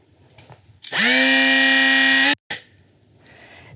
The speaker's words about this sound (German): Das ist ein Flex, ein Akkuflex, den wir immer bei uns haben. Wir haben auch noch größere auf dem Auto. Mit diesem Werkzeug hat es noch kein Schloss gegeben, das ich nicht aufmachen konnte.